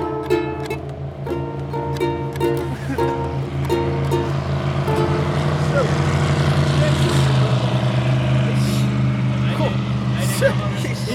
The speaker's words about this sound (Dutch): Oh, dat is er komt een boot aan. Zo. Zo.